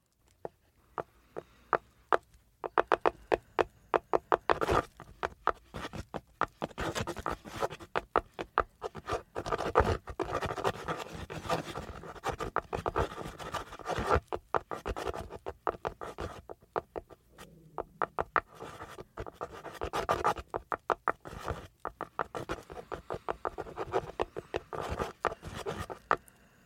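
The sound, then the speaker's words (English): A feather taps on wood to open a portal during a reading, in a rapid, uneven patter of light clicks and scratchy ticks, continuing for the whole stretch with a few brief pauses and no talking. “So by the way, you, you all might hear tapping. That's the feather hitting the wood.”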